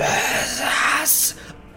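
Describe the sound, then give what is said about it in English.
A voice imitates haunting screeches within a pool: a wavering, moaning wail that slides through high pitches, ending in a brief sharper shriek before trailing off, with no words spoken. “haunting uh, screeches within the pool.”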